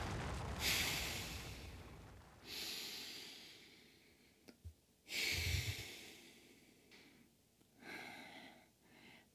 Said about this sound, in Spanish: Sigue respirando. Inhala y exhala.